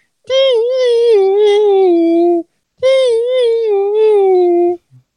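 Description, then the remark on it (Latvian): A voice imitates a squeaky synthesizer melody with two long, sustained, nasal tones whose pitch wavers slightly, separated by a short pause and sung loud without words. “Tāds pīk, pīkstošs, kaut kāds pīkstošs sintetizators, kurš skan apmēram.”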